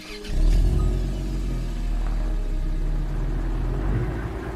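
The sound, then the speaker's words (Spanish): A car engine starts a low, steady rumble after a brief quiet moment, then hums and revs loudly as the car drives off on the way to Guecho, near Bilbao, with no talking. “Cogí el coche y me acerqué hasta Aguecho para conocer a Robles y para conocer su historia e intentar entrar en el puerto de Bilbao.”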